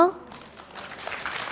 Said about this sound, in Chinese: 我相信您听到我们现场的掌声